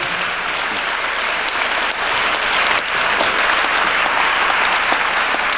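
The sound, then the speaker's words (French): An audience claps for a speaker at the end of a talk, steadily, a dense, even wash of many hands with no pauses and no voices, holding roughly the same loudness throughout. “On peut vous applaudir.”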